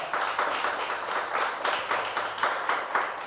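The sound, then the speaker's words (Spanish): A crowd applauds the Holy Spirit of God with steady, fairly loud clapping that swells in regular pulses about twice a second, as if partly clapping in unison. No voices stand out. “Es un aplauso al Espíritu Santo de Dios que nos revela la verdad.”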